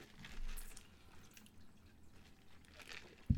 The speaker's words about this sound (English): sipping my beverage.